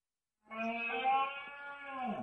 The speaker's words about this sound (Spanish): Este es el sonido de la berrea del ciervo.